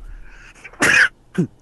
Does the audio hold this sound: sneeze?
yes